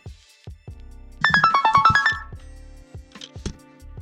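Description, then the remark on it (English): A phone ringtone plays a quick, bright, descending electronic melody, with short, regular tonal beats before and after it; the melody stands out clearly and no one speaks. “She'd overheard us, and she wondered if she could phone and we could talk and she could share some of her own stories.”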